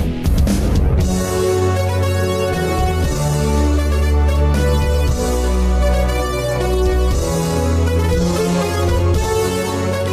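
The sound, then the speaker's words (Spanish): A synthesizer plays a full, loud passage of sustained, buzzy chords over deep bass, shifting notes every second or so, with no voices. “Podéis escuchar que es bastante versátil y eso que solo he traído tres ejemplos.”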